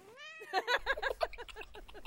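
A cat gives one drawn-out, rising meow, then a rapid run of short, pulsing cries that gradually fade. It sounds clear, with no one talking.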